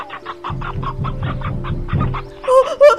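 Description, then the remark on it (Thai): A hen clucks in rapid, agitated bursts as it runs to the farmhouse crying for help, a steady run of about ten quick repeated calls, then a few higher, squawking cries at the end. Loud, with no voices. “พอหันหลังมาดูลูกได้หายไปเสียแล้วดากุ๊กได้รีบวิ่งไปที่บ้านไร่ได้ร้องขอความช่วยเหลือ”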